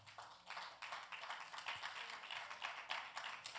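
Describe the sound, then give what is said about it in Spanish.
An audience applauds steadily, a dense wash of many hands clapping in quick overlapping bursts that hold a fairly even, moderate loudness throughout, with no voices heard. The applause is given at the preacher's call for a loud applause to the one who lives. “Den un aplauso fuerte al que vive.”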